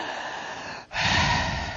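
A strong, deep breath taken in a guided breathing exercise: a steady airy inhale, a brief pause, then a fuller, louder rush of air that fills the range. Clear, with no talking.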